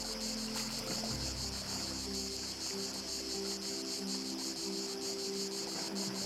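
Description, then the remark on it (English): Cicadas buzz high in the trees in a steady, shimmering drone, a dense high-pitched chorus that rises and falls, with a faint low rumble beneath, continuous throughout and unbroken by any voices. “The wind picks up again, and as you listen, you tune in to the cicadas. High in the trees above and behind you.”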